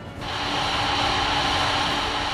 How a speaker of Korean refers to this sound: 따뜻한 바람이 필요하다. 안방에서 드라이기를 가져오라.